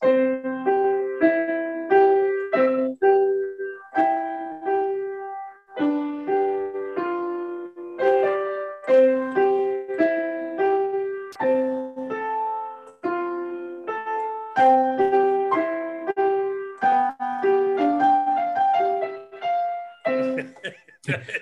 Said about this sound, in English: so everybody who has a seven year old child if you have a seven year old child and the seven year old child plays the piano, you know exactly what I'm saying. It sounds like this.